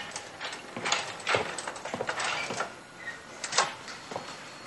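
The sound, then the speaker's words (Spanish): In a hospital, a nurse rolls a wheelchair up to a bed, its frame giving off irregular soft rattles and mechanical clicks over a faint hiss, with no one speaking. “En el hospital un enfermero acerca una silla de ruedas hasta la cama de Reinaldo.”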